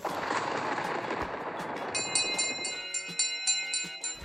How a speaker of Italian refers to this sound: Nell'estate del 1894 ho costruito un segnalatore di temporali costituito da una pila un coesore e un campanello elettrico che emettono squillo in caso di fulmine.